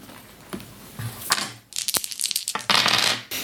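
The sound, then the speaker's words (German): A handful of dice rattles and clatters across a hard surface, a burst of sharp clicks and knocks, with no talking over it. “So, außerdem, würfel mal mit 3, 6.”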